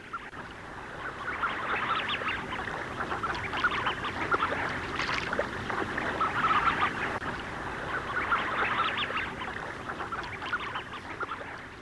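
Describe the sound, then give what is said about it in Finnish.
A dense, continuous chorus of soft bubbling, gurgling calls from spring-migrating tufted ducks on a boat channel on a calm, mild, foggy evening, heard from a yard, many birds overlapping with no voices present. “Kuuntelin pihallamme, kun tukkasutkat alkoivat pulista kutteriväylällä.”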